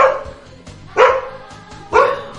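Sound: dog barking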